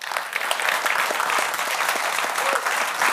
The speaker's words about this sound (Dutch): Toch een goed eh, applaus met een klein comité.